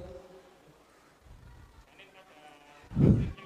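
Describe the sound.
A person briefly mimics a goat's bleat, a short loud nasal burst near the end after some quieter murmuring and background noise.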